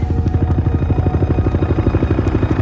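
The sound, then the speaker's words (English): A Navy helicopter flying to a plane crash site: its rotor thumps in a fast, steady rhythm, loud, with a constant engine whine running underneath and no voices. “Fernandez rushes to the crash site in a Navy helicopter.”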